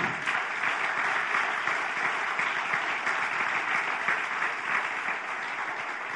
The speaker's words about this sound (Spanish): ¿Cuánto damos un aplauso al Señor?